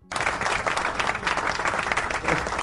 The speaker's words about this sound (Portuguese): Nossa, esse termina muito seco essa palma. Joga de novo, por favor. Obrigado. Obrigado. A palma tá péssima. Não tem uma palma melhor aí, não?